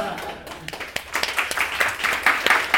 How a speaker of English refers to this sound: Applause.